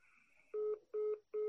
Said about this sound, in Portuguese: Caiu, tá bem ruim a ligação.